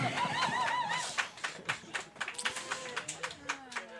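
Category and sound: crowd, applause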